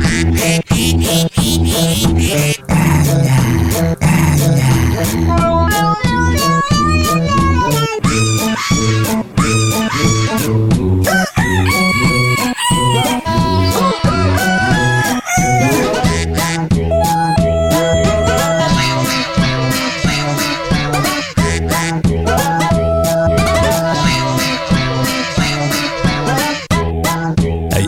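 An upbeat, loud pop song in an animal band's own version, with a duck in the lead role, its melody carried by quacking duck-like voices over a steady, driving beat and dense backing instruments.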